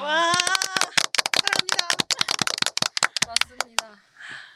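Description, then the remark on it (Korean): A small group claps hands in a quick, uneven burst of sharp slaps lasting a few seconds, with brief laughter or voices mixed in at the start before the applause tapers off. “박수 한번.”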